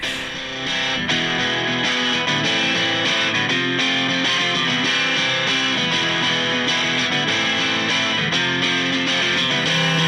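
A rock song plays loud and steady, driven by heavily distorted electric guitar with a dense, full band sound and no voices, continuing without a break for the whole stretch.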